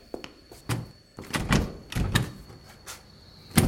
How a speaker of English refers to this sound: It's locked. The door's locked.